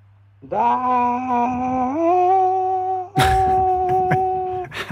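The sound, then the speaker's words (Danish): A recording of a scream is played back: a long, loud, tonal scream that slowly rises in pitch, followed by a second sustained wail with harsher, noisy bursts mixed in. No one talks over it. “kom, kom lidt mere kraft Ej, det var da ikke... Øh, på det skrig.”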